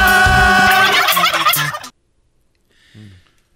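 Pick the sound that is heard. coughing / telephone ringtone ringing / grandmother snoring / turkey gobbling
turkey gobbling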